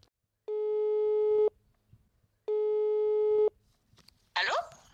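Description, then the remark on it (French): A telephone ringing tone of a call to an old school friend living in Mexico sounds twice as long, steady electronic beeps about a second each with a pause between, then a person's voice briefly answers at the end. “j'appelle une vieille copine du lycée qui est au Mexique qui vit au Mexique depuis de nombreuses années, pour qu'elle me fasse un peu un brief sur la situation là-bas.”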